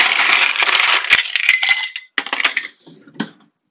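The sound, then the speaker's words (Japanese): Ice cubes clatter into a glass in a bright rush of clinks and rattles, then a few scattered clinks settle as the cubes come to rest. No voices. “グラスに氷を入れた音。”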